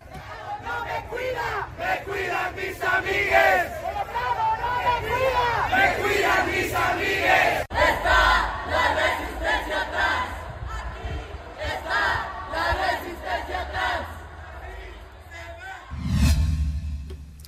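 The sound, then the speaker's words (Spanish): A large protest crowd chants together in rhythmic unison, loud and sustained, with many voices shouting slogans over a dense background roar, then a brief burst of louder cheering near the end; a protest over the death of magistrate Jesús Ociel Baena. “Durante la protesta, las personas afirmaron que Ociel luchó para que se reconocieran los derechos de las personas no binarias en todo el país.”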